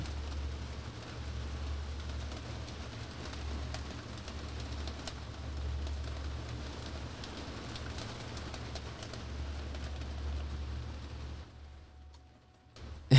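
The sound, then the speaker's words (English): Steady rain hisses evenly over a low, constant rumble, with scattered patters throughout, then thins out and fades near the end. No one speaks. “yeah, the rain's coming in for sure.”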